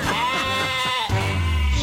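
A sheep bleats in a long, wavering, nasal cry, followed by a second shorter bleat over a steady low rumble, loud and without any talking.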